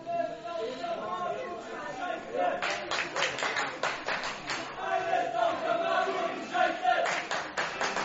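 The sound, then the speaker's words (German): A stadium crowd at an American football game breaks into applause for the Mercenaries in the fourth quarter, a dense patter of many hands clapping that swells after a few seconds and holds steady, mixed with loud chatter and scattered shouting voices throughout. “Applaus für die Mercenaries!”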